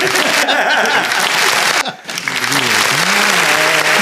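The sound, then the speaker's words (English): A loud, dense burst of clapping from a crowd fills the space, briefly dipping before swelling again, with cheers and voices mixed in underneath. “Round of applause.”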